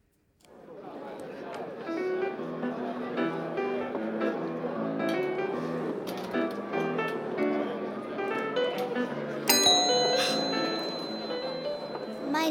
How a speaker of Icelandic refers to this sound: Nú eru við stödd á fínum veitingastafn, þar sem undurfærir tónar eru spilaðar á piano. En í bland við skvaldur og klingjandi glös er stundum svolítið erfitt að heyra hvaða lag pianoleikarin er að spila eða hvað.